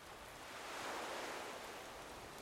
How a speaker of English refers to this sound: As you approach the ocean, the waves seem to grow. The white surf spiraling as it makes its way up the beach towards you.